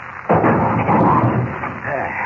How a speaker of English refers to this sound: He's behind this heavy wooden door, locked in. Get away from the door, Jimmy. It's coming down.